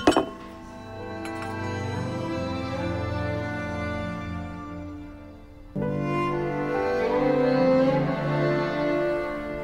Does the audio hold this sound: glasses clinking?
yes